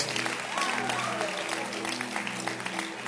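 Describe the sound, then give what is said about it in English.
An audience at a church service claps their hands in a steady, dense wash of applause that holds for several seconds, with faint voices and a low hum running underneath. “So clap your hands once again.”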